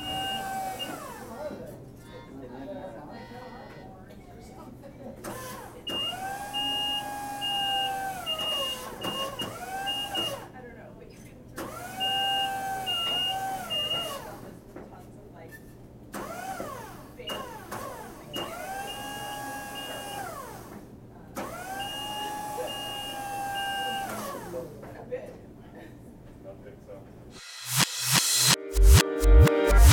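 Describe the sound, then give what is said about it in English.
Ambience at a Johnson County Library location, dominated by a machine that whirs in repeated cycles, its tone rising, holding and falling every few seconds over a steady low hum, ending in a burst of clatter and clicks. “We leave you with sounds from one of our locations. It's your audio minute we call Library Zen.”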